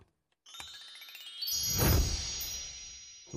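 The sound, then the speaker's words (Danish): Bells chime and jingle together in a ringing, overlapping wash that swells louder midway with a rushing sweep, then lingers and rings on. No voices are heard. “Nej, du kan godt høre. Ja. Det bimler og bamler.”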